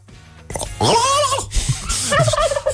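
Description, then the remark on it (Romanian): A person imitates a turkey gobble with a loud, warbling burst of rapid throaty notes, rising and falling over about two seconds, then a shorter second gobble. “Asta e curcanul când se opintește dimineața asta.”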